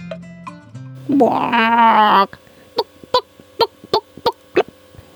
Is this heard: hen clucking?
yes